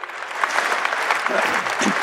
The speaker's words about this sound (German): Und ich sage das nicht nur, oder ich sage das überhaupt nicht, um hier ein bisschen Beifall zu kriegen oder den Kindermitarbeitern gut zu tun